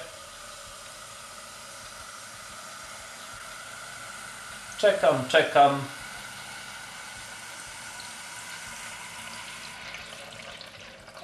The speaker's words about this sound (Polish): W momencie, kiedy się woda y, zapełni, kiedy zostanie ta górna komora zapełniona y, wodę, wodą, no to po prostu Y, kończę nalewać, bo to znaczy, że woda już y, mi ten zbanek zapełniła i że tyle wystarczy. Proszę bardzo, lejemy wodę.